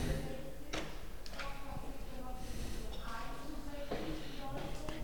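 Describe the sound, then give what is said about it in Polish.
A bathroom door opens with a few short clicks and knocks of the handle and latch against a steady background hum; there is no talking. “Teraz otworzę drzwi.”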